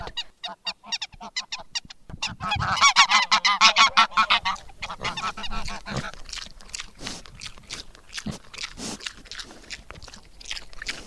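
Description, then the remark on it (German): Several geese on a farm honk loudly and repeatedly, a burst of overlapping nasal calls, followed by scattered clucks, snorts and crunchy feeding noises from other farm animals being fed. “Jetzt habt ihr gerade Gänse gehört.”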